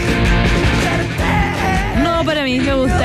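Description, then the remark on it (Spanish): Raw, dirty-sounding protopunk rock plays loud and continuous, a dense wall of distorted guitar and drums with a strained, wavering vocal line rising over the top in the second half. “protopunk.”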